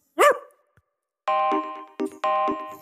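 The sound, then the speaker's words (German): A person gives one short, sharp imitation of a dog's bark. After a brief pause comes a string of steady, ringing electronic-sounding tones. “Und dann bellst du wie ein Hund ganz kurz.”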